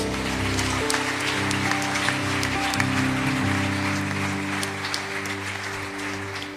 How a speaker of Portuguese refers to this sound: Glória a Deus, aplauda Jesus.